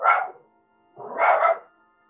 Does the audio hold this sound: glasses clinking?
no